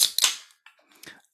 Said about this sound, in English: Uh, in true spirit of what we're about to talk about, let's crack open a can of lager,